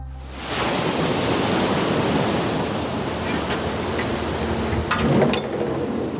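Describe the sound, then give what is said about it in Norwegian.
Ocean waves wash against the crab boat Tromsbass as a steady, rushing roar with a wind-like hiss, broken by a few sharp knocks and clatters on deck, where a six-hour shift has just begun. Nobody speaks. “Det seks timer lange skiftet har nettopp begynt på dekket på krabbebåten Tromsbass.”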